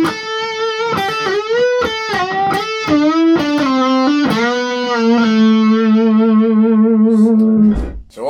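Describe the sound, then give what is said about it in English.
A distorted electric guitar plays a melodic line, each note dipping and bending up into pitch with a whammy-bar scoop, ending on a long sustained note with gentle vibrato. No talking. “So let let's deal with maybe some, some basic trem techniques. Okay. Scooping into notes.”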